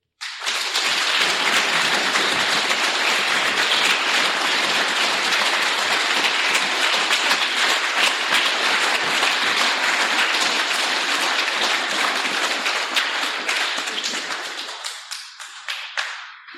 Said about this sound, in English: I was hoping for a bit of a faster clap than that tonight, actually.